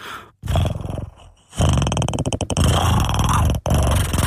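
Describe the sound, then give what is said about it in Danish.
A person imitates a cat's grunting chirp with a run of loud, throaty vocal bursts, separated by short pauses, with no speech. “knorlyd, altså den lyd, når de knorer, ikke?”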